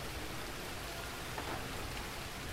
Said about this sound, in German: Wenn ich die Regenmaske aufsetze, kann ich den Sturzregen rufen. Dann beginnt er wie ein tausendjähriger Regen und tausend Regentropfen prasseln auf Blätter und den Waldboden.